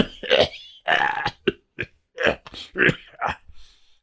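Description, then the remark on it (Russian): A voice imitates a raven breaking off its song with an old man's raspy coughing fit: a string of rough, throaty hacks in uneven bursts, loud, tapering off into weaker wheezy coughs at the end. “свою песню закончить он не смог, так как закашлялся старческим кашлем.”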